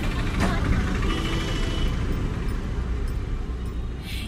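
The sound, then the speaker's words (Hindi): Steady low rumble of congested traffic, idling and growling engines filling the scene continuously, with a brief faint horn-like tone early on and murmuring voices mixed into the background. “इसे ऐसे समझिए कि हम सबकी जिंदगियों का अलग अलग अपना अपना साउंड ट्रैक होता है और इस साउंड ट्रैक में जो आवाजें शामिल हैं वो आपके ही आसपास की सिम्फनीज हैं जैसे कि ट्रैफिक में फंसे एक दूसरे पे गुर्राती हुई हॉर्न मारती हुई गाड़ियों की आवाज़”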